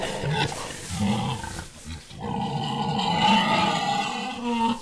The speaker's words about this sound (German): Schweine. Ja, viele Schweine.